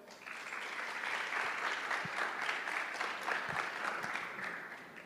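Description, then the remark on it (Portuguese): Sustained applause from an audience after a man affirms his commitment to be baptized, a dense, steady wash of many hands clapping at even loudness for about five seconds, with no voices heard over it. “Uma salva de palmas então.”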